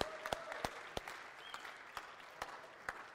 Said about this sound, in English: Everyone give Shelby Young a round of applause.